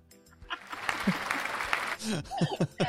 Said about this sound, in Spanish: Y hoy tenemos un invitado muy especial porque viene Miguel Bosé con nosotros también. Eh. Tengo aplausos.